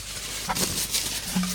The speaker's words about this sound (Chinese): 这是卫生纸的声音。